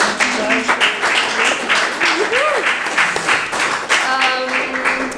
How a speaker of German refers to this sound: Erstmal ein Applaus vielleicht.